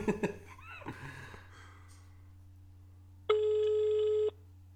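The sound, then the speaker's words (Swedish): A single one-second ringback tone of an outgoing phone call sounds clearly over a low steady hum, preceded by faint handling clatter and breathing. “Ska vi ringa upp honom lite snabbt?”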